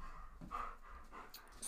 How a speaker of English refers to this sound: sorry if you can hear Dodge panting away in the background because he's come right next to the microphone to come and help, apparently. He was asleep before I started recording, it's typical.